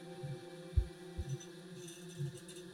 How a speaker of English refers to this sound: You're not sensing any emotions at all. Just the sound of a heartbeat.